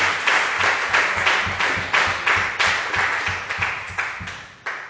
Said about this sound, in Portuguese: Vamos aplaudir o nome dele.